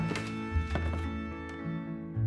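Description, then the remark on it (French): Several soft, unhurried footfalls thud in an uneven rhythm as a father comes calmly down a staircase, with a steady low musical drone sustained underneath. “Il entendit alors les pas de son papa arriver tranquillement par l'escalier.”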